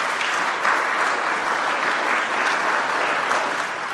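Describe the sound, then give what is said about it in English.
Slow, half-hearted applause from a crowd after a speech: a steady, even patter of many hands at a moderate level that never swells or builds, with no voices over it. “the fucking applause is half-hearted.”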